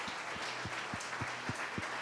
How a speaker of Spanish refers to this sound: Y vamos a darle un fuerte aplauso a cada una de estas personas. Uno, dos, tres. Un fuerte aplauso. Un fuerte aplauso.